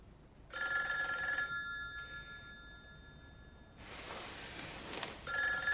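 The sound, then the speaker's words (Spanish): A telephone kept under a bed rings in two bright, metallic bursts separated by a pause, the second cut off early, with a stretch of rushing noise before it returns. No one speaks. “Enciende una lámpara y saca el teléfono de debajo de la cama.”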